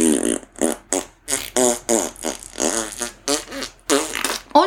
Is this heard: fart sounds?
yes